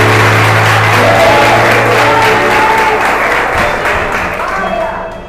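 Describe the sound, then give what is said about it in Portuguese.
A church audience applauds God steadily for several seconds, a dense wash of clapping that gradually fades toward the end, with a low hum and faint voices mixed underneath. “Olha aplaudir a Ele.”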